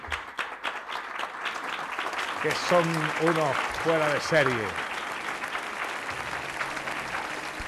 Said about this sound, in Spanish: Y yo les voy a pedir un aplauso para los técnicos de Canal Sur,